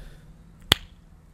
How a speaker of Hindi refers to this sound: आप भी ताली बजाओ आजा करो बहुत बढ़िया जी नहीं तो सिंक वाली ताली थी हमारी